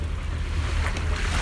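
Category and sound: nature, sea waves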